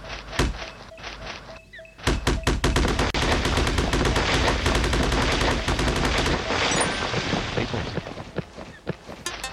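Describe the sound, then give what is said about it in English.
Video game digging sound effects: a few scattered sharp hits, then a dense, rapid burst of loud thudding impacts that rattles like machine-gun fire for several seconds before thinning out. “Those digs almost sound like a gun.”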